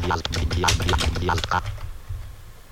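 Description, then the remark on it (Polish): A quick run of keyboard keystrokes as a password is typed into a login field, several sharp taps in an uneven rhythm for about a second and a half, followed by a low background hum with no further typing. “No i spróbuję teraz wprowadzić hasło.”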